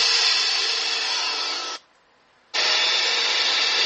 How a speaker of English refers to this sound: There's the shop vac.